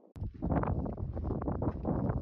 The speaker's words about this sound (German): Stufe um Stufe geht's rauf auf dem staubig trockenen Boden in einer kargen Landschaft ohne Baum, ohne Grün. Der Wind bläst kräftig.